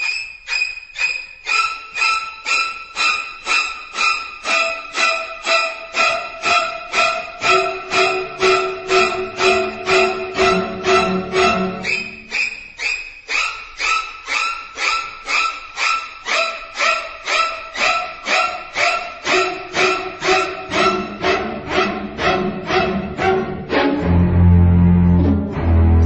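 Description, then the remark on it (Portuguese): Shrieking high violin strokes stab in a rapid, relentless staccato rhythm, loud and insistent, before a deep low cello note drops in near the end. No voices. It is a soundtrack played only on string instruments, with the strings standing for stabbings. “só instrumento de corda as cordas são as facadas, né?”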